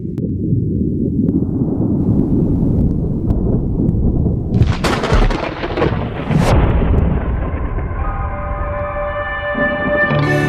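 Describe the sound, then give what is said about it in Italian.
Loud, deep rumbling thunder rolls on and on as rain comes in, with a couple of sharper cracks midway, before music begins to rise underneath toward the end. “Oh, arriva la pioggia.”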